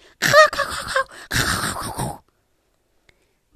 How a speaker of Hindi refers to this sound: बाहर आकर झिलमिल ने देखा कि दो बिल्लियां आपस में झगड़ा कर रही थी